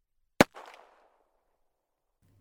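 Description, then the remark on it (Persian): A single sharp, loud gunshot, fired by someone entering a tent, cracks out and is followed by a brief rumbling echo that fades within half a second. The rest is near silence with a faint low hum at the end. “هر چادری رو که واردش میشدن هیچ کسی داخلش نبود وقتی خوب میگشتن و میخواستن از چادر خارج بشن یکی از یک جای چادر وارد میشد و شلیکی میکرد”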